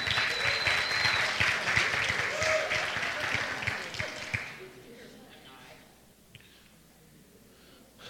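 A crowd applauds loudly with dense clapping for about four seconds, then it fades out quickly, leaving a quiet room with faint murmurs.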